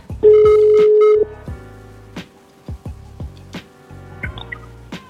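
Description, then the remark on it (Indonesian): A phone call being placed directly to a guest: the ringing tone sounds once as a steady, loud hum lasting about a second, followed by several short, sharp clicks and taps at irregular intervals; no one speaks. “Kita telepon langsung aja ya.”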